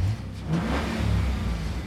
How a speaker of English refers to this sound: A car drove by, a silver Mustang. The Mustang slowed down.